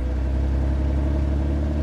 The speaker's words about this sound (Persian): یادم افتاد که تو پارکینگ خونه ماشین دارم یه دیویستیش سفید خسته البته فکر نمی کردم روشن بشه بعد این همه مدت استارتم زدم روشن نشد بار دوم استارت زدم روشن شد باورم نمیشد